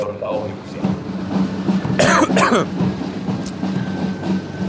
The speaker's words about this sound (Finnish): Melkoinen jyrinä ja meteli on tässä kaupungintalon kohdalla juuri tällä hetkellä, kun nämä joukko tästä, tai koneet tästä ohi menevät.